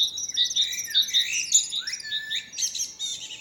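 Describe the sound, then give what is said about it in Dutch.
Many species of birds chirp and sing at once in the Vogelzangbeek nature area of marsh patches, woods, pools, meadows and pollard willows, a busy chorus of bright, high tweets and short trills repeating steadily over a faint low background hum. “Er wonen hier ontzettend veel soorten vogels door de afwisseling van lapjes moeras, bos waterpoelen, weides en knotwilgen.”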